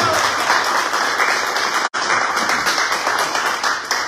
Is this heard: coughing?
no